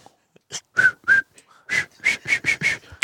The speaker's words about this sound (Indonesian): niup dia botol gitu.